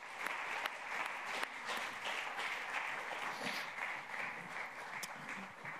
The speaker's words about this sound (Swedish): Kan vi tacka Jesus med en stor applåd för de här underbara familjerna? Tack ska ni ha.